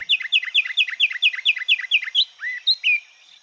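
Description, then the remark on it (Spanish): A finch (pinzón con el rostro) sings a rapid, even trill of about a dozen bright chirps, then ends with a few slurred whistled notes, clear with no voices; a recording from the Banco de Sonidos de Aves Colombianas compiled by the Instituto von Humboldt and Cornell University. “El trino del pinzón con el rostro forma parte del Banco de Sonidos de Aves Colombianas recopilado por el Instituto von Humboldt y la Universidad de Cornell.”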